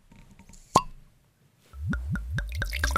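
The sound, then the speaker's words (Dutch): A single sharp clink, then deep red wine glugs from a bottle into a large glass in a quick run of about seven rhythmic pulses, each one a rising gulp, with no talking. “Ik schenk u nu een, uh, een dieprode, een dieprode wijn uit.”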